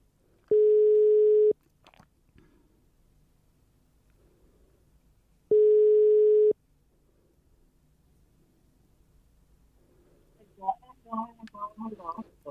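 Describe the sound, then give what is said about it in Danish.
Two steady, one-second telephone ringing tones about five seconds apart, heard as a man in an office places a call to his mother, with a quiet pause between them, followed by voices starting to talk at the end. “Og øh, der står noget ret interessant i, i den mail, så jeg prøver lige at ringe til min mor.”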